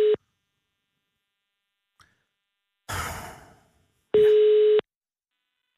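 A telephone ringing tone on an outgoing call from a radio programme to a listener: a steady electronic tone pulses, pauses for about four seconds, then sounds again, with a soft breathy whoosh in the gap. No one speaks; the call then reaches voicemail.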